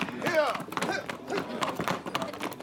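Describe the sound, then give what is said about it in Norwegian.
Horse hooves clatter in a quick, steady rhythm as a horse carrying a rider moves away at a gallop, while a voice speaks over the hoofbeats near the start. “Da ønsker jeg et raskt og sikkert ritt. Og overlater deg til hesteryggen.”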